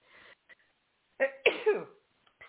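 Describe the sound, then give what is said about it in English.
A sneeze: a sharp, explosive burst of breath followed by a brief wheezy tail, fairly loud and on its own, with a few soft breathy noises before and after. “Bless you. I'm sneezing on the truth.”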